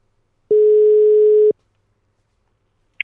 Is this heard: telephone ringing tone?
yes